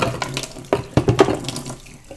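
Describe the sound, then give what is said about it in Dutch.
Tap water runs into a sink while a bell pepper is washed under it, with irregular splashes and spatters as the stream is interrupted, fairly loud, with no talking. “Ik ga de paprika even snijden en wassen.”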